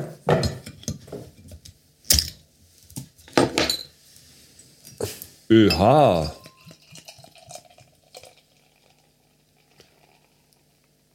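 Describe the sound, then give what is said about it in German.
Beer glugs out of a bottle in a short, bubbling gurgle as it is poured out, preceded by clinking glass and handling noises, then a quieter fizz and faint clatter as things settle. “Ich hörte ein Geglugger durch mein.”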